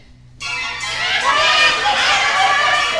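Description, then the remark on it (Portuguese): A noisy racket from a crowd of forest witches: many shrill, overlapping voices shrieking and cackling together. It bursts in loudly after a brief quiet moment and keeps going as a dense, chaotic din. “Porém, escuta só que barulheira! Oh, são as bruxas! As bruxas da floresta!”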